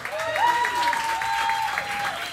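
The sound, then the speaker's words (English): A live audience claps steadily for a couple of seconds for a Riotcast Network co-founder coming up, a dense wash of applause with a sustained high whistle-like tone running through it. “So, big round of applause for Rob.”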